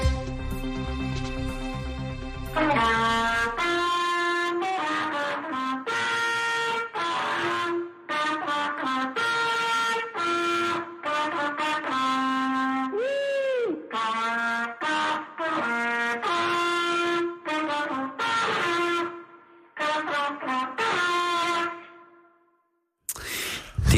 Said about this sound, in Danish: Det er altid træls, når man ikke lige lige kan få tonerne til at passe på den der måde i, øh, i hornet.